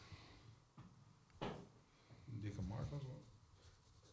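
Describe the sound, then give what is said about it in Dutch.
A marker pen that is no longer fully inked scratches across a surface in a few short, separate strokes, drawing stripes, fairly quiet, with a brief murmur of a voice partway through. “Want een dikkere marker moeten regelen. En de stift is niet meer helemaal vol.”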